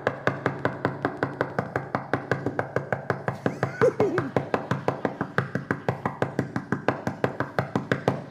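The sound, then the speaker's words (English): Rapid, steady knocking on the door of a home, dozens of firm raps in an unbroken run that keeps going for the whole stretch, loud, with a faint voice briefly underneath midway. “but then there's another knock there's another knock that we hear sometimes when we're just kind of hanging out at home, and it, it goes something like this.”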